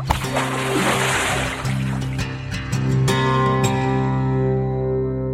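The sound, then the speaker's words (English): Water sloshes and splashes as heavy foodstuffs, including number 10 cans, a case of soda and an entire watermelon, land in quick succession on a paddler's boat, which is taking on water, over a steady low droning hum; no one speaks. “I'm I'm taking on water. Mayday, Mayday. Hey, that's an entire watermelon. It's coming in hot.”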